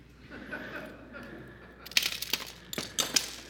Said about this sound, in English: and you think, boy, that looked temperamental. But it wasn't temperamental. You see, I'm actually picking up this glass. It is broke in a very controlled manner.